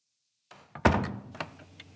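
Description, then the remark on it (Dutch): A door swings shut with one solid thud as someone comes in, preceded by a soft shuffle and followed by a few lighter clicks and rattles as it settles. No one speaks. “Van Roos mij horen binnenkomen?”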